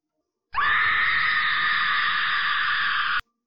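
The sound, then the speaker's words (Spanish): A single loud, sustained excited scream, high-pitched and steady, held for nearly three seconds before cutting off abruptly, with no other voices or sounds around it. “Bueno, después de ese grito de emoción, nos despedimos.”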